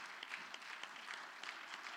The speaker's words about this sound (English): Can the church say, Praise the Lord? It is good to be in the house of the Lord. Let's give the Lord a mighty hand clap of praise.